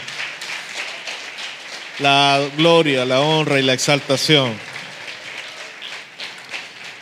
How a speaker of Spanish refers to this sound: Dele un fuerte aplauso a nuestro Dios porque Él se merece la alabanza